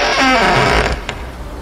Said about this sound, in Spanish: Al instante que enciendo la luz y enfocamos la mirada a la puerta, la puerta ya no tenía pasador. Entonces se empezó a abrir sola.